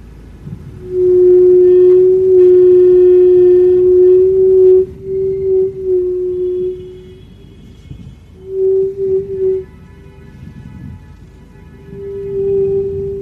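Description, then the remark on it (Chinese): A car makes an abnormal noise every time it reverses: a loud, low, moaning drone that holds steady for several seconds, fades, then returns in shorter groaning bursts, with no one talking. “倒车的时候，我就把这个声音给录下来了。”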